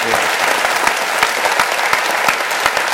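A room full of people applauds steadily, dense overlapping hand claps forming a loud, continuous wash of sound with no talking over it.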